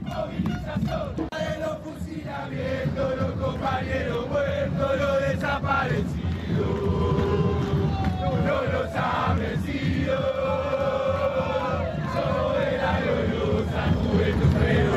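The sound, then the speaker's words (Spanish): A street protest of about 25,000 people blocking a street and demanding a general strike roars and chants continuously at steady high volume, many voices blending into a dense wall of shouting with rising and falling chant phrases throughout. “Cortando la calle. Jorge Ayala dice debe haber unas 25.000 personas.”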